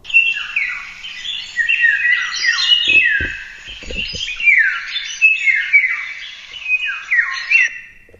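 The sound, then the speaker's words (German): A bird sings a clear, fluting whistled song, repeating descending high-pitched phrases in a steady rhythm, with a few brief low thumps underneath and no talking. “Ich würde den jetzt mal gern abspielen. Ein, also ein richtiges Flöten.”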